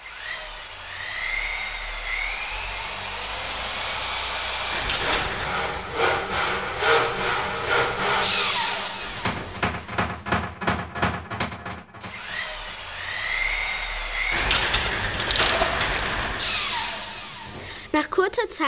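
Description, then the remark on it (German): Rhythmic sawing strokes mixed with bursts of quick knocking hammering as a cart with four red wheels is built from building materials and tools, in a busy stretch of work noise with brief pauses between rounds of work. “Der Hahn kommt mit allerlei Baumaterial und Werkzeug aus der Scheune und baut sich ein abenteuerliches Gefährt mit vier roten Rädern.”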